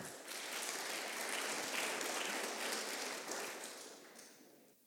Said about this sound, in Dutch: Ehm, ik ga de eerste, het eerste team naar voren roepen. En dat is het team eh, Samen Leuker en Sterker. Een applaus.